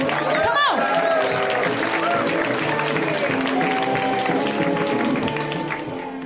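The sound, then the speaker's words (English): Steady audience applause at a comedy show as a comedian is welcomed to the stage, dense and loud with cheering voices mixed in, holding level before tapering slightly at the very end. “Give it up”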